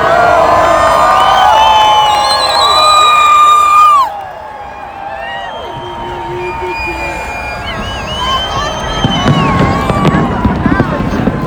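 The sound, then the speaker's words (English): A dense outdoor New Year's Eve crowd in front of Planet Hollywood cheers, shouts and whistles continuously, with fireworks popping and crackling through the din, growing louder near the end. “Just trying to walk around all the people. right in front of Planet Hollywood.”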